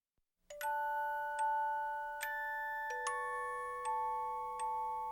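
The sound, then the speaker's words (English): A soft lullaby melody plays from an iPod on shuffle, made of slow, ringing bell-like notes struck one after another and left to sustain, with no voices over it. “When uh, my first daughter was born, I made this CD that would be like lullaby songs.”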